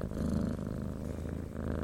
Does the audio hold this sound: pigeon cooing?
no